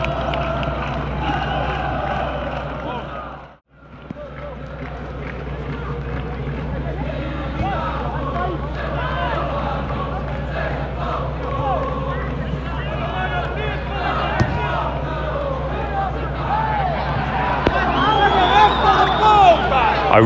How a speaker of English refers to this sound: the ultras on the other side of the stadium are singing a chant to the tune of … by …